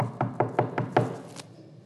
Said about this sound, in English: Knocking on doors, looking for that little puppy that got out.